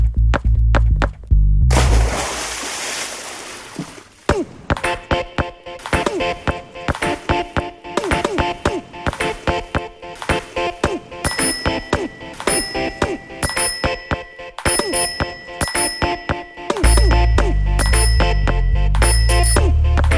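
A loud self-produced electronic music track built from sampled sports sounds, made in 30 minutes: rapid rhythmic taps and bright bell-like pings over deep bass, with a burst of noisy swoosh near the start and no talking.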